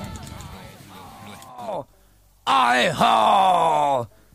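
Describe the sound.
A raw punk rock song with hoarse, shouted vocals straining loudly over a dense, distorted band, the voice breaking off briefly before returning even louder and more intense.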